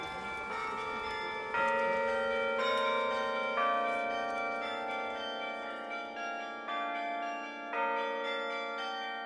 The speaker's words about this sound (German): Das zarte Spiel von dem Glockenspiel, das gehört zusammen. Als ganz Dirndl bin ich schon davor gestanden und habe das gehört, angeschaut. Als sie noch ein Dirndl war, gab es noch kein Glockenspiel oben in der Kirchturmspitze von Maria Hilf.